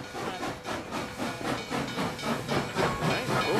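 A steam train chugs along with rhythmic, breathy hissing bursts repeating quickly and steadily, moderately loud, with no voices over it.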